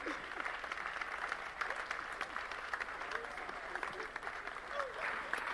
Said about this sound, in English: Wow. Oh, your clapping is like some old men in the house.